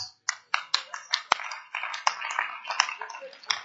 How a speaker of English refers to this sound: I thought you are clapping for yourself because look, let me tell you something.